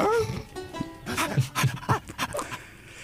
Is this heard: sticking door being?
no